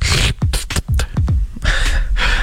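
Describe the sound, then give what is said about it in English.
A voice imitates kissing: a quick series of five or six wet lip smacks, fairly loud, framed by breathy exhales before and after. “that's the sound of a kiss.”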